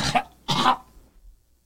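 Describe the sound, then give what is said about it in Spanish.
Two harsh, raspy coughs in quick succession, the second longer and louder, followed by a faint breathy rasp as things settle into quiet, from a person who has just swallowed a small piece of herb. “Se me fue un pedacito de hierba. Diablo, te lo tragaste, ¿eh?”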